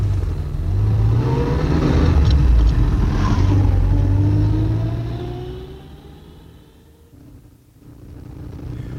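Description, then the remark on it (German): A car engine revs and pulls away on the road to Cicero, its pitch climbing through several rising gear sweeps before easing off, then a low engine rumble picks up again. No one speaks. “Und fahren Sie vorsichtig. Ich möchte nicht, dass es einen Unfall gibt.”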